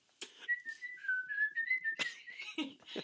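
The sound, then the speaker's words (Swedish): A person whistles: a single sustained, slightly wavering tone lasting about a second and a half, framed by short breathy rustling bursts before and after. “Ibland är det någon vissel så här.”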